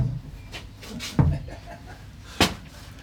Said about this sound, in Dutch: Het grendeltje dicht. De deur op slot.